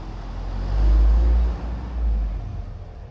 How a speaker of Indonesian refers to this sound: sebel juga sih ya si truk harus ngegas pas di depan rumah resiko rumah ada di uh, pinggir jalan